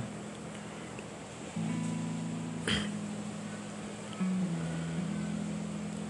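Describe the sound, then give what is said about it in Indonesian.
A steady wash of rushing water from a waterfall at Studio Alam fills the whole recording at a constant level, with a low droning hum underneath and one brief sharp burst partway through. “Dari air yang mengalir ke bawah dari air yang mengalir ke bawah hmm, saya menemukan makna mendalam yaitu dari air terjun yang berada di studio alam”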